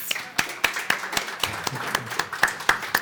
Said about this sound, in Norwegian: Og da har vi med oss generalsekretær i Kreftforeningen, Anne Lise Riel. Applaus.